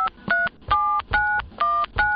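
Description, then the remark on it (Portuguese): A quick run of about six telephone keypad dialing beeps, each a short clear dual tone at a steady level, spaced by brief pauses, with no talking. “Minutos depois, dentro de casa, quando ele acabou de chegar, eu passando um cafezinho, eu ouvi o telefone.”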